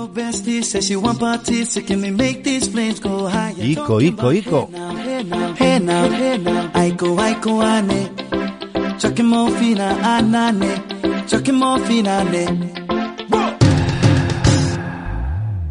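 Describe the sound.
An upbeat pop song plays loud and continuous on a morning hits radio show in Spain, with a male singer over a steady beat and full backing band, the arrangement shifting briefly near the end.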